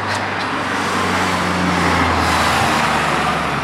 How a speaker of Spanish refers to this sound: Hay mucho tráfico hasta ahora, ¿eh? que es la hora en la que todos acabamos de currar.